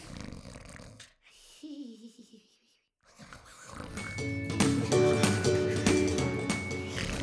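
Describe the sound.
A single drawn-out, rumbling snore stands out in a brief quiet stretch, followed by a loud burst of busy, bright music and sound effects.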